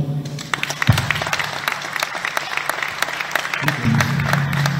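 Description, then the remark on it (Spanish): An audience claps steadily for about five seconds, a dense crackle of many hands at a fairly loud, even level, with a low hum and faint murmurs underneath. “Un aplauso.”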